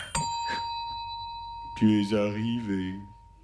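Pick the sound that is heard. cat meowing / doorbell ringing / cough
doorbell ringing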